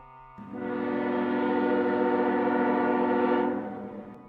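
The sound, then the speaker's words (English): A long, steady train whistle sounds once for about three seconds, a loud, rich harmonic tone that swells in and fades out over a low rumbling undertone. “I've never heard a train whistle crying through the dawn but what I thought of her and shuddered.”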